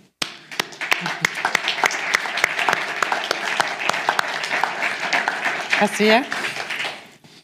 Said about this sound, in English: And uh, I think we've, we've got to give them uh, a round of applause, and she's their representative today.